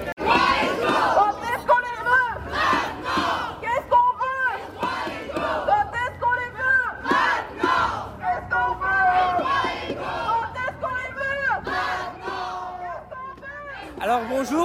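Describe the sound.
A crowd of protesters at a demonstration against racism and discrimination in Liège chants loudly and continuously in rhythmic bursts, many voices shouting together over a constant din of raised voices.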